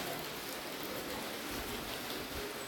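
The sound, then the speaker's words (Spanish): Steady rain falls in a continuous, even hiss, with a soft patter of drops on a surface. It is fairly quiet and unbroken, with no voices. “Siempre les he puesto el sonido del mar y ahora les pongo el sonido de la lluvia, un poquito, un ratito.”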